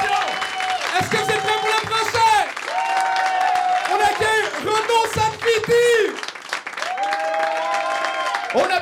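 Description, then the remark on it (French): An audience at a comedy show applauds a comedian steadily for several seconds, a dense wash of clapping mixed with cheering voices and some tonal sounds running through it, loud and continuous throughout. “on applaudit, on fait”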